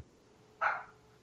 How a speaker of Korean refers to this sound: 저희 개가, 가 짓고 있네요.